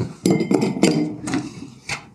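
A huge chunk of ice drops into a whiskey glass, clinking sharply and rattling against the sides in several quick knocks, with a bright glassy ring and no voices.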